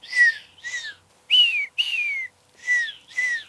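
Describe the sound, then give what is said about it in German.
A person whistles a signal meaning "we understand each other": six clear notes, each sliding downward in pitch, two short, two longer, then two short again, with brief pauses between and no talking. “Aha, kannst, kannst, du mir das mal pfeifen? vormachen? Kannst du pfeifen?”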